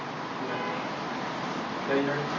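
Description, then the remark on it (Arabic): A steady wash of outdoor traffic noise, with a single short car horn toot near the end. “يوجد السيارة”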